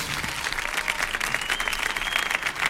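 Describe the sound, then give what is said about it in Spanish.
An audience on El show del Comandante Lara applauds the show's sponsors steadily, a dense wash of many hands clapping at an even, sustained level for a few seconds with no voices standing out. “Fuerte el aplauso para nuestros patrocinadores.”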